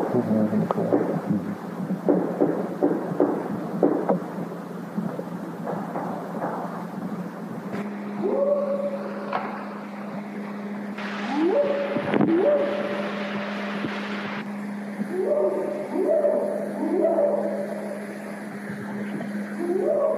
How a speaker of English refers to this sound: And what they captured is what they say are multiple Sasquatch speaking to each other on tape.